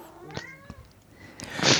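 A cat meows, a couple of short harmonic mews followed by a louder, drawn-out cry, with no one talking.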